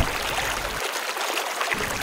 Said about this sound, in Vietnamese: tiếng nước sông réo ì ầm